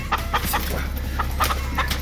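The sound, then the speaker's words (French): A chicken clucks repeatedly in short, bright bursts over a steady low hum, the clucks coming in an irregular rhythm at moderate loudness. No one speaks. “Les poulets éternels. oui. On dirait un poulet normal.”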